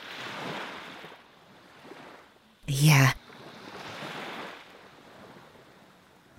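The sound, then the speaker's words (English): Ocean waves wash onto the shore in soft, broad swells of hiss that rise and fade twice, with a brief spoken word from a voice in between. “We really got him back to the ocean.”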